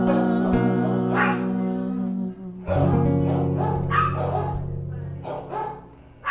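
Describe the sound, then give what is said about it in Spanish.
Small dogs bark and yip in quick, high-pitched bursts over a sustained musical background from a live song performance, the barking fairly loud and repeated throughout. “Y con perritos de fondo”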